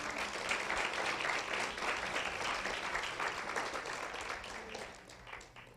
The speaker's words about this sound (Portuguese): Aplauda o nome de Jesus se você puder.